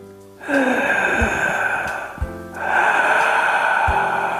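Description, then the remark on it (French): Two long, loud, raspy breaths drawn deliberately through a constricted throat in a breathing exercise contrasting tight and relaxed breathing, each lasting about two seconds with a brief pause between, harsh and hissing like a Darth Vader impression. “Nous allons alterner ces deux respirations de manière à ce que vous sentiez bien la différence”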